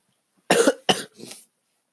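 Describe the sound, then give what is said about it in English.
A quick series of three coughs, the first two sharp and loud, the last one softer and breathier, with no talking in between. “with some coughing here.”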